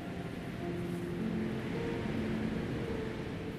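A large, red, brightly lit bus rumbles steadily along an otherwise empty, snow-covered street, its engine a low, continuous drone with faint tonal hum beneath broad road noise, constant throughout.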